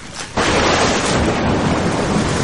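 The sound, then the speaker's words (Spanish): A storm surges in: after a brief softer moment, a sudden loud roar of gusting wind and heavy rain fills everything, broad and steady with a low rumbling underneath. “Puta, el tremendo ventarrón condenado este.”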